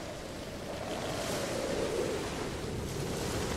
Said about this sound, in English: the noises the swishing of waves and the slap of water against the ship's sides, and the creaking and the overall high, steady roar of air and water.